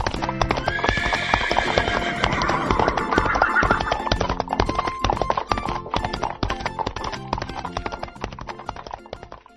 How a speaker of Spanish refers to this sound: Es más fácil mover a mi caballo. Solo digo arre, oh, y listo.